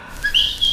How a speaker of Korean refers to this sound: 네, 새 소리입니다. 새 울음소리 아니고 새 웃음소리예요.